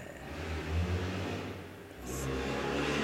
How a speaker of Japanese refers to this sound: ああちょっと車がうるさいですね時々まあ暑いんでちょっと窓開けてやってるんですけど時々もう本当にあのね迷惑なうるさい車が通るんですけども